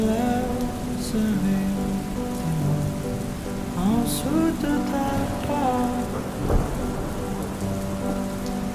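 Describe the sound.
Steady rain hisses throughout as a constant wash of noise, with a voice singing over it and a brief low rumble partway through.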